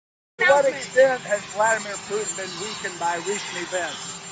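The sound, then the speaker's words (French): A steady roar of the rotor blades of the presidential helicopter fills the background while Joe Biden talks over it, the engine drone continuous and partly drowning out the speech. “Euh, je ne sais pas si vous allez entendre, le son est couvert par les pales de l'hélico présidentiel,”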